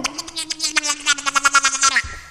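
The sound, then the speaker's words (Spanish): A voice imitates a duck with a steady, nasal, buzzy call broken into rapid pulses, a quick run of about a dozen quacks lasting two seconds, fairly loud. “Cuando te truenan los huesos un pato,”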